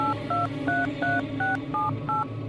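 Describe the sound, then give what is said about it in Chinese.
Seven short touch-tone beeps from a telephone keypad sound in a steady, evenly spaced rhythm as a mobile phone number is dialed, each a clear two-note electronic tone over a low background hum. “我马上抓起电话，拨起易文的手机号码。”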